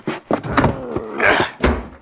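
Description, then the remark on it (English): A series of dull, heavy knocks on a door, six or so blows landing at an uneven pace, with a muffled tonal sound running between them. “Or somebody knocking.”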